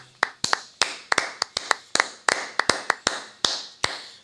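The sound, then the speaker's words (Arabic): A series of about fourteen sharp hand claps at an uneven, slightly hurried pace, fairly loud, each crisp smack ringing briefly. No one speaks. “هذا شنو تصفيق تصفيق, تصفيق.”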